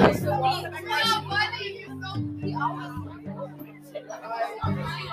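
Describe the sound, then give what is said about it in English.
A dense crowd murmurs and chatters at lunchtime, many overlapping voices blending into a steady babble, with a few children's voices rising above it and a low sustained hum running underneath. “So yeah, I'm going to sneak past the crowd.”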